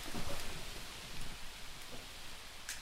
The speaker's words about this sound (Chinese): 哎，是下雨了吗？